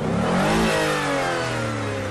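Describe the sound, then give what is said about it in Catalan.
A car engine running on Shell V-Power fuel revs up loudly, its pitch climbing then settling into a steady, throaty hum, with no voices over it. “A la ràdio no podem mostrar-te com la nova fórmula exclusiva neteja i protegeix el teu motor, però sí que podem ensenyar-te com sona.”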